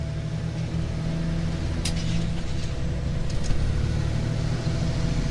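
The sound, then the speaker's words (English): A car drives steadily along a road, its engine a constant low rumble with road noise beneath, plus a few brief higher clicks or ticks partway through. No one speaks. “As they set out on the open road, Trent believed that his life goals were finally coming true.”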